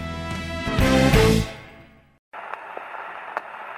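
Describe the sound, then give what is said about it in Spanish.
Music fades away into a brief silence, then an old 78 rpm vinyl record starts up with a steady muffled hiss and occasional sharp pops and crackles of surface noise. “Así empezaban los viejos discos de vinilo que giraban a 78 revoluciones por minuto.”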